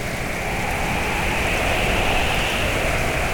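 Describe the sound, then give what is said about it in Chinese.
Heavy rain pours down in a steady, dense roar during a heavy wind and rain storm, with a broad hiss of wind-driven noise that stays loud and unbroken throughout, no voices present. “呃，这风雨好大哦！”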